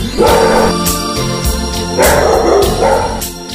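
A dog barks loudly several times in a steady rhythm, each bark a short rough burst, over a constant humming tonal background, with no one talking.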